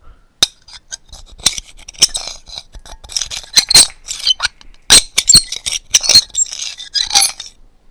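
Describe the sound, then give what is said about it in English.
A very squeaky chair squeaks and creaks repeatedly as it's swung around with a person seated in it, with sharp, irregular high-pitched squeals and clicks, and no talking. “Sorry, it's a very squeaky chair.”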